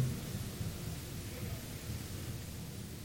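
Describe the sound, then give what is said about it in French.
Steady rain pours down in a continuous, even hiss, with a low rumbling undertone beneath it and no voices, holding at a moderate level throughout. “Il pleut.”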